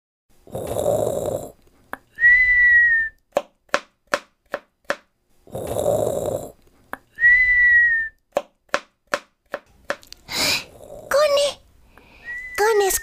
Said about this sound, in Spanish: Yo solo escucho ruidos. Tu abuelita roncando, … silbando y tu papá picando una verdura.